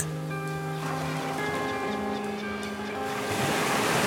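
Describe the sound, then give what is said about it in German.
Steady ocean surf washes and breaks continuously, a broad rushing hiss that swells slightly toward the end, with sustained droning tones layered over it and no voices. “Alleine mit dem Möwen und dem Meer.”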